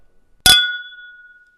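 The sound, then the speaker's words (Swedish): A single bright clink of champagne glasses touching in a toast on New Year's Eve, sharp at first and then ringing out with a clear, fading tone over about a second, with no one talking. “vi, vi tar en skål på det här.”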